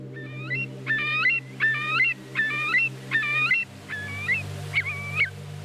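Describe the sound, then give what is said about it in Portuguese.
A Eurasian curlew, walking in mud along a bank, calls about seven times in a steady rhythm, clear rising whistled notes repeated roughly once per second, heard alone over a low, constant background hum. “Ora, a ave de que estamos a falar é o maçarico real.”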